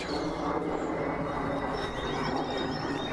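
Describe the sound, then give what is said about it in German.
A small-looking airplane flying overhead makes a steady, broad roaring drone with a faint high-pitched whine on top, holding an even loudness throughout with no voices. “Macht um diese Zeit ein Flugzeug hier.”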